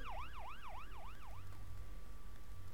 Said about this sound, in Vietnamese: tiếng la hét vang lên xung quanh cô tiếng còi ầm ĩ hỗn loạn